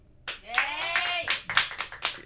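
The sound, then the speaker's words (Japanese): A short burst of hand clapping, several sharp claps in quick, uneven succession, with a cheering voice rising over the first part. “逆に申し訳ないぐらいだから拍手いらないです、ここは。”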